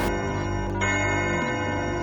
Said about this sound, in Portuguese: Estamos na calada da noite, ouvindo um relógio dar suas doze badaladas.